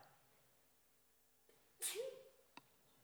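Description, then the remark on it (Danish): A single sharp sneeze bursts out loud, a quick breathy explosion followed by a short fading tail, with a faint click just afterward. “Prosit.”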